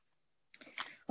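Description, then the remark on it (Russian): A felt-tip marker scratches across paper in one short stroke lasting about half a second after a brief silence, and a sudden louder noise cuts in right at the end. “Извините меня очень я привыкла к доске, и мне э, фломастером писать, и я не привыкла на бумаге писать фломастером.”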